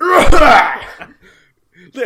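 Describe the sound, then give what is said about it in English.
A voice imitates a short, raspy cough: a loud burst followed by a few quieter breathy sputters and a brief vocal trailing sound. “like just sort of like coughs a little.”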